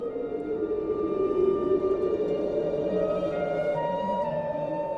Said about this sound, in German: Was höre ich denn da? Eine Flöte?